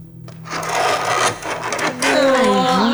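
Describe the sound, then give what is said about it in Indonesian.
Fingernails scratch and rasp across a wall in a loud, continuous drag, then the scrape turns into high, wavering screeches toward the end. No voices. “Kayak kayak kuku ngegaruk dinding itu gitu.”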